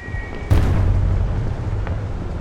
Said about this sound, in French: Ce jour-là, le ciel est gris au-dessus de la capitale polonaise. Il pleut des cordes et des bombes incendiaires.